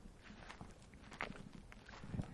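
Footsteps crunch steadily over dry, gritty earth, not snow, each step a scuffing crackle in an even walking rhythm with faint outdoor ambience behind.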